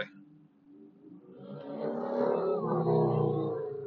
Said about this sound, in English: super loud big motorcycle just drove by